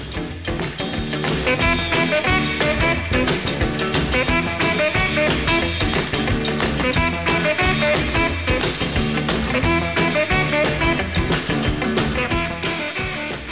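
A saxophone plays a lively, continuous melody over a full band backing with steady drums, loud and close throughout, with no one speaking.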